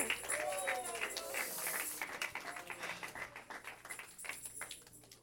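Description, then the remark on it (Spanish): A crowd at a religious service claps steadily and densely for God for several seconds while scattered voices shout and cheer, the applause tapering slightly toward the end. “A ese Dios, dije, a ese Dios le estamos aplaudiendo ahorita.”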